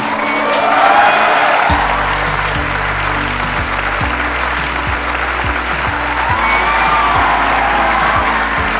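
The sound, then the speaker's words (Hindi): A crowd applauds loudly and steadily, with cheers and whoops mixed in, welcoming the founder of the motivational YouTube channel Mister Proton, while a strong low musical beat pulses underneath, keeping time for the whole stretch. “so please gave an energetic and warm welcome to the founder of mister proton”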